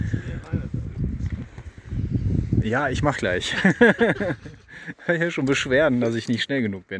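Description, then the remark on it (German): Metal climbing gear clinks and rattles in quick, irregular bursts as a man puts on his climbing harness in a large cave before climbing a route, while a man talks and laughs over the jangling. “Das Klippern, was man hört, ist …, der sich gerade sein Klettergurt anzieht.”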